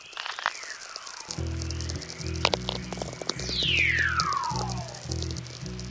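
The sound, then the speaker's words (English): Natural radio sounds of the aurora borealis, captured by natural radio recordist Steve McGreevy: long descending whistles gliding from high to low pitch, scattered sharp crackling clicks, and a steady low buzzing hum underneath, with no voices. “Steve McGreevy invited producer Barrett Golding to turn these sounds of the aurora borealis into radio.”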